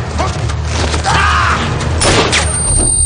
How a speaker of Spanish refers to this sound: Suena un disparo. El hombre de barbas que iba con la policía tiene su revólver levantado.